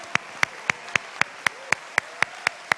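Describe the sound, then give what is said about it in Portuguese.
An audience at a worship service claps together in unison in praise of God, a steady beat of about eleven sharp, crisp claps evenly spaced, with no voices over them. “Estas palmas são para ele.”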